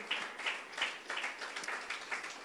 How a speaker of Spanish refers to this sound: Diga amén y dele un aplauso a la preciosa palabra del Señor.